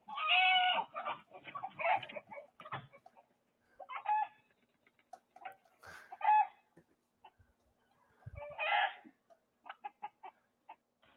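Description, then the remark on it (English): A chicken clucks in irregular bursts over about eleven seconds, with louder calls from a goat mixed in. Short pecking clicks fall between the calls, and no one speaks. “Because the goat protected the chicken from a hawk.”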